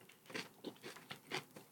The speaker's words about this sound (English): They know we eating vegetables. So crunchy, crunchy, crunchy.